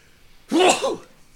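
A single sneeze bursts out, a short noisy blast with a voiced edge lasting about half a second, then fading back to quiet.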